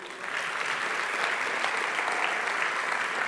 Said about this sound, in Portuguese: Estou achando vocês quietinhos essa noite. Dá um. Aplauda ao Senhor aí.